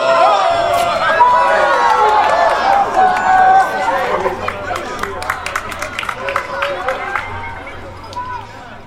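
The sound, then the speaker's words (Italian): An audience cheers and chatters loudly, then breaks into scattered applause, with individual claps standing out as the crowd noise gradually thins. “Un bel applauso!”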